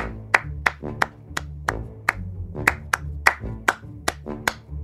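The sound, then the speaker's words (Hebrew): A single person demonstrates different kinds of hand clapping, clapping over and over in quick, uneven bursts, about fourteen sharp claps whose rhythm shifts and whose tone varies from crisp to fuller. No one speaks. “אוקיי, שים לב לסוגי מחיאות הכפיים שאני יודע לעשות.”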